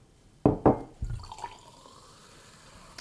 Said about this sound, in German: Kannst du dein äh, Whiskyglas mit Wasser ausspülen? Ja, kannst du.